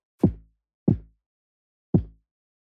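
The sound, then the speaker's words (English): Three punchy 808 bass hits with a hollow, flawed tone, each attacking sharply and fading within half a second, the last arriving after a longer pause. No talking. “And this is what you guys' 808 sounds like.”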